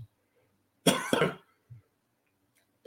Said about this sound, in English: pardon my cough